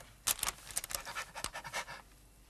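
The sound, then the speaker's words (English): A dog pants in quick, breathy bursts, a rapid string of huffs over a couple of seconds, fairly loud with no talking. “Man's best friend?”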